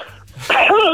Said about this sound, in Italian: la tosse.